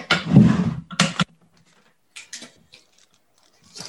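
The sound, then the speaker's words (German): A package is opened with scissors: a loud crunchy crinkling burst, a sharp snip-like rustle, then quieter scattered clicks and papery scrapes. No one speaks. “Also ich öffne jetzt hier dieses Päckchen. Genau. Hier gerade eine Schere.”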